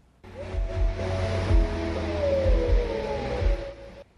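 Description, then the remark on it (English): Muffled music from an outdoor concert in Columbus, heard just after 11 at night from about three quarters of a mile away and measuring about 80 decibels, carries through open air, with sustained tones over a thudding low bass beat, its higher detail blurred by distance and no voices nearby. “Just after 11 o'clock, we check the sound from about three quarters of a mile away.”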